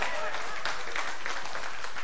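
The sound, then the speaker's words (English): An audience applauds to give the speaker's wife a hand for her birthday, on Father's Day, a dense, continuous patter of many hands clapping at a steady, moderately loud level for about two seconds, with faint voices mixed into the noise. “Sure, if you're going to do that, give her, give her a hand for her birthday or something.”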